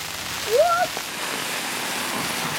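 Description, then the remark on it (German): Hail patters down steadily outdoors, a dense, even hiss of small impacts throughout, with a brief rising-and-falling vocal whoop near the start. “Es hagelt, oder was? Ist das Hagel oder Schnee?”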